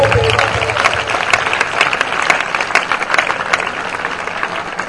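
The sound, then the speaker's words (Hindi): An audience applauds steadily for five seconds, a dense, loud wash of clapping with scattered sharper claps, while a voice murmurs briefly near the start; the applause is for children who broke a record in their matriculation exams. “लेकिन अब जिन बच्चों को मैं बताने लगा हूं उन्होंने ऐसा नहीं मेरे जैसी मैट्रिक नहीं की उन्होंने यहां पर एक रिकॉर्ड तोड़ा है पहले तालियां मैं रहूंगा ऐसा देखो”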